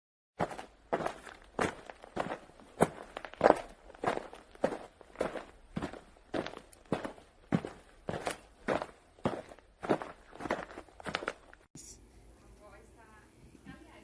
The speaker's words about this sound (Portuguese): Tom e Anne foram soltar os seus amigos e, e ouviram outros barulhos de passos de uma pessoa vindo em direção deles.